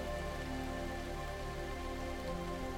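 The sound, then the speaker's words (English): Steady rain falls continuously, a dense, even patter that never lets up, with soft sustained musical tones humming underneath. No one speaks. “You are now soaked in raindrops of love from yourself.”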